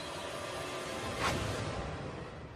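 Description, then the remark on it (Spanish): A single quick whoosh of an arrow released from a bow reinforced with buffalo neck tendons, the arrow flying at about 300 km/h, cuts briefly through a steady background hiss, rising and fading in a fraction of a second. “Cuando el maestro Yang suelta la cuerda y dispara,”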